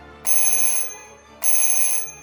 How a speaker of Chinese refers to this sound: 不一会儿，帕斯巴德听到尖锐的铃声。